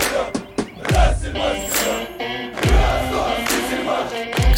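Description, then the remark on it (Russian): A large stadium crowd of Rostov football fans chants the club's old name, "Selmash" or "Rostselmash", in unison, voices rising together in a rhythmic call, punctuated by heavy drum thuds about every second and a half, loud and echoing. “В кричалках они используют старое название – «Сельмаш» или «Россельмаш».”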